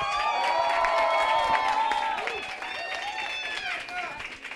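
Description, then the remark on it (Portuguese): A small group of people cheers and whoops together, several excited voices overlapping in a loud, sustained burst of noise that tapers slightly toward the end. “Antes de mais nada, barulho pro Meteora Podcast, certo?”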